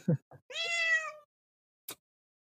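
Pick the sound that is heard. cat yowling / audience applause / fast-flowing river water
cat yowling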